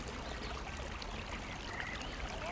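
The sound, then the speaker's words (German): Water churns and splashes steadily, a continuous, even rush of pond water agitated by a device with small water wheels placed in the middle of the pond to move the water, with no voices over it. “Da der Teich keinen natürlichen Abfluss hat, wird seit einigen Jahren ein Gerät mit kleinen Wasserrädern in die Mitte des Teiches platziert, um das Wasser zu bewegen und das Umkippen zu verhindern.”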